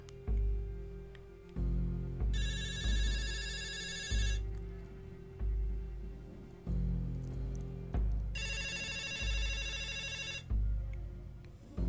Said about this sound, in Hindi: तभी एक टेलीफोन की घंटी बजती है